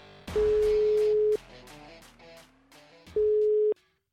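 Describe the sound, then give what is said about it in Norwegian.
A telephone ringback tone from an outgoing call: two loud, steady single-pitch beeps, the first about a second long and the second shorter, separated by a pause, with light music underneath. “Men da tar vi en telefon da,”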